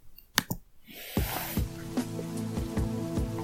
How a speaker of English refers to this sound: And the ambiance is set with a rainy, rainy night in New York City. Somebody needs to shut that manhole cover, eh?